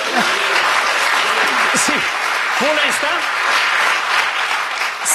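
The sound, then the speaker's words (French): An audience applauds steadily and loudly for the whole stretch, a dense, even crackle of many clapping hands, while a man's voice speaks a few words beneath it. “et d'ailleurs vous pouvez applaudir si ça vous dit, mais.”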